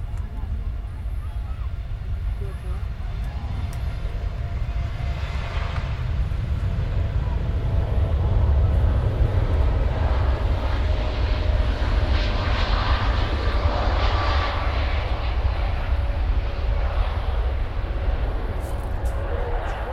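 An airplane passes overhead near Copenhagen Airport, by the Flyvergrillen grill bar, its deep, broad engine roar building to a loud peak midway, then slowly easing off while still rumbling steadily to the end.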